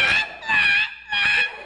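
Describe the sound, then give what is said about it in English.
A person imitates a bird squawk with three loud, harsh, honking calls in quick succession, each rising and falling with a nasal, goose-like tone and short pauses between them. “You guys will judge which has the best bird squawk here.”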